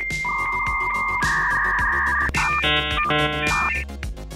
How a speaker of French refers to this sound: Revenons donc au son de notre modem qui se connecte.